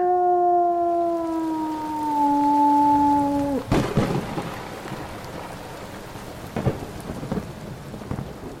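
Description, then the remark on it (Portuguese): Heavy rain pours steadily throughout, a dense hiss. A long, wavering howl rises over it at first, then sharp thunder cracks break in and scattered rumbles follow. “Hum, mas que droga de chuva!”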